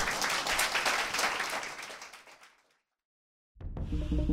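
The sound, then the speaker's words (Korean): A crowd applauds with dense, crackling clapping that gradually fades out over about two and a half seconds, followed by silence before a different sound starts abruptly. “박수로 유대목은 끝낼까요?”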